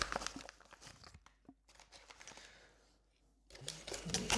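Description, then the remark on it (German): Busy crinkling of a plastic bag being handled and torn open, with sharp crackles in bursts, a quieter pause in the middle, then a loud flurry of rustling at the end. “Ah, noch eine Tüte?”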